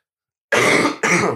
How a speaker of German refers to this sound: Ich huste noch einmal kurz für dich, warte.